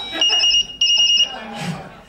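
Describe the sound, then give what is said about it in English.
A device ringer tone, the one currently in use, sounded by pressing the smart button, plays two bursts of rapid, high-pitched electronic beeping with a short gap between them, followed by people talking and murmuring in the background. “Pressing the smart button will sound the ringer tone currently in use.”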